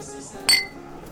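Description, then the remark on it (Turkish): Two glasses are set back down on a table at nearly the same moment after a toast, making one sharp glassy knock with a short ringing tail. “İki kadeh, masaya geri konduklarında aralarındaki uçurumu seyrettiler karşılıklı.”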